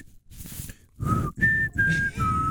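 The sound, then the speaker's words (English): A person whistles the short four-note tune from The Hunger Games, the notes slightly breathy and separated by brief gaps, after a second of soft, airy attempts. “What somebody are you trying to no, whistle?”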